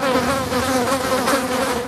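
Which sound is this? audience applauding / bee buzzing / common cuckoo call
bee buzzing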